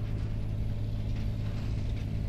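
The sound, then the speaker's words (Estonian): A Jeep Grand Cherokee engine roars with a steady, deep, throaty rumble, holding an even pitch throughout as if idling or cruising. No voices are heard. “Grand Cherokee möiratas nagu vihane äike.”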